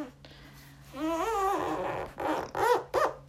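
Adhesive tape is pulled off a roll with a squealing, rasping rip, followed by a few shorter, sharp tearing bursts close by, then pressed down.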